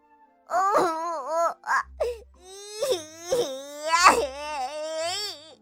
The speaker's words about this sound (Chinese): 可怜的哈瓦尔现在被仙女变成了一只小鸟，他嚎啕大哭了起来。